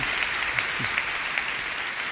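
An audience applauds, a steady, dense wash of many hands clapping at once with no clear individual rhythm, sustained at an even level throughout.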